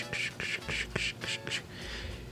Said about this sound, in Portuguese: Eu liguei a tela do monitor com a caixa de som bem baixinha, o coachado do sapo.